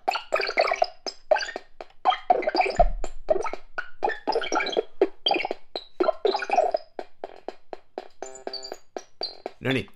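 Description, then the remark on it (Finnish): Steady bubbling and gurgling runs throughout, a dense stream of small wet pops and glugs at moderate loudness, with a voice speaking over parts of it and a low thump near the start. “Sen lisäksi tätä hyvän kuulosta pulputusta, niin mä otin tästä kuvia sillä että mulla okay.”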